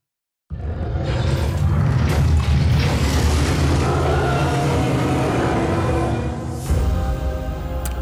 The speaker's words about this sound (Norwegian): dette er uh, lyden av uh, Minecraft Dungeons. Det er et helt nytt uh, spill som lanseres i dag.